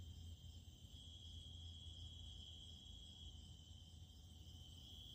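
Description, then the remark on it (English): Crickets chirp in a steady, unbroken high-pitched trill, soft, over a faint low background hum with no voices. “A few crickets and the occasional sound of wildlife break up the silence and make the gawkiness bearable.”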